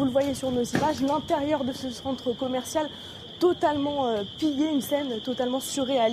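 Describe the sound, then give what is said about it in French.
A continuous, high-pitched electronic alarm rings steadily without a break at a looted shoe store in a shopping centre in Sevran, Seine-Saint-Denis, France, while a man talks over it the whole time. “Et on entend la, ce qu'on entend, c'est la, c'est une, une alarme.”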